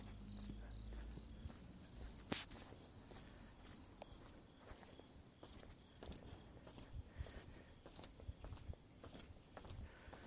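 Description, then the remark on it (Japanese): Faint, continuous high-pitched insect chirping fills a quiet outdoor scene, with soft scattered rustles and footstep-like thuds and one sharper click near the start. “虫の音を流すだけにこうなってしまっているんですけども”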